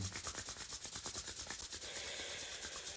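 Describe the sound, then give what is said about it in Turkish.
Palms rubbed briskly together to warm the hands as much as possible during a breathing and energy exercise, a steady dry swishing friction in quick back-and-forth strokes for about two seconds, then smoothing into a continuous hiss. No voices. “Bunun için ellerimizi vuruyoruz ve olabildiğince ısıtıyoruz.”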